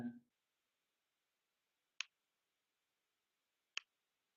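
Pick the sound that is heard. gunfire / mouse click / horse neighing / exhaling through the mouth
mouse click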